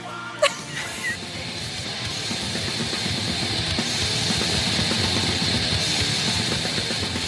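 Black metal music, a dense, harsh wall of distorted sound with rapid pounding drums underneath, steady and loud throughout after a brief sharp hit at the start, no voices audible.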